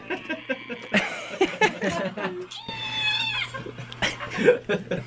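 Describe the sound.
Animal yelling plays from a phone during a CITR 101.9 FM radio show: a drawn-out, wavering cat-like yowl stands out mid-clip, with shorter cries around it, while people talk and laugh.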